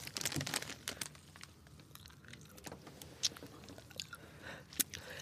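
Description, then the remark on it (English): Moist chewing of Sour Patch Kids sour gummy candy with powder inside, busiest at first with some crinkly rustling, then thinning to scattered smacks and clicks. No one speaks. “these are Sour Patch Kids. So there's like powder inside.”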